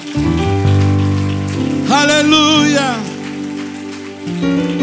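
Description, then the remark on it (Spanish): A church audience applauds the Lord at the close of a leadership seminar in a steady, dense wash of clapping that runs the whole time, with sustained music underneath and a voice calling out over the crowd. “Alguien dele un fuerte aplauso al Señor.”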